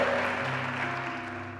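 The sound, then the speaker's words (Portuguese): A church audience applauds the name of the Lord Jesus in a steady, dense wash of clapping that holds evenly for under two seconds, with a low sustained musical tone humming beneath it. “Você pode aplaudir o nome do Senhor Jesus?”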